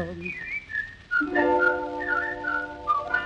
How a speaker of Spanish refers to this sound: De vereda a vereda, la contraseña se desliza en la oscuridad, el silbido clave porteña que ella esperaba con tanta ansiedad